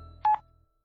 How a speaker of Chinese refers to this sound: 所以呢，万晨毫无顾忌地拿起了手机，按下了接听键。